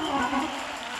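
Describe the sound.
A crowd claps their hands together in a dense, steady burst of applause, fairly loud, with a faint murmur of voices mixed in.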